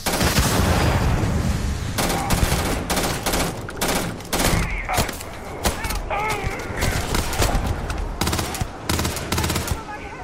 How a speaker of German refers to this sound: Die Ballereien nämlich, die machen hier wirklich viel mehr Spaß als in den vorherigen bisherigen Games. Die haben einfach einen richtig schönen Wumms